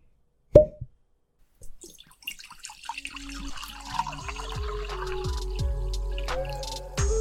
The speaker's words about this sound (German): Die Korken knallen, der Prosecco fließt.